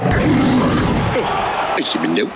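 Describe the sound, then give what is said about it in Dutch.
A loud, sustained, rough-edged lion roar of Loekie de Leeuw, the lion of the Ster commercial breaks on NPO, rumbling for about two seconds over a busy, crowd-like wash of noise before cutting off abruptly. “Ja, je hoorde hem al. Loekie de Leeuw heb ik het natuurlijk over.”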